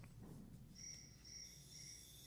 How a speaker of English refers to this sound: it's my phone. okay, I was like, is that cricket.